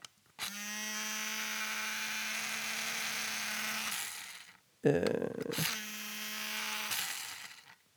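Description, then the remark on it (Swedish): The small electric motor of an automatic pencil sharpener whirs with a steady, buzzing hum for about three and a half seconds, cuts off, then runs again briefly after a short rattle and a murmured syllable; its blade is too weak to actually sharpen the graphite pencil. “Det är nämligen ljudet av en automatisk pennvässare vars, vars motor snurrar men vars jävla blad är för svagt för att faktiskt vässa pennjäveln.”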